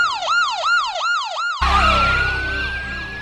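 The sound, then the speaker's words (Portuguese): A police car siren whoops in quick, repeating up-and-down sweeps, about four cycles, then gives way to a loud rush of noise with a single tone slowly rising beneath it. No one speaks. “Polícia.”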